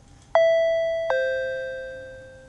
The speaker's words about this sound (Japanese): ある日の午後英子さんが居間でテレビを見ているとインターホンが鳴った